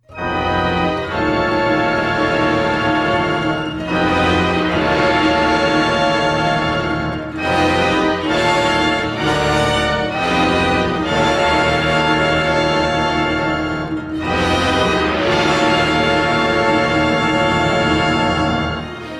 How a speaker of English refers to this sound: There's this demonic motif that plays, signaling the coming of Gozer and other frightening haunts, that sounds like this.